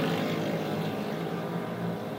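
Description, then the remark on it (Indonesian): A motorcycle's noisy exhaust rumbles with a dense, throaty drone, holding steady and fairly loud throughout without any voices. “Pakai knalpot berisik itu seninya di mana sih”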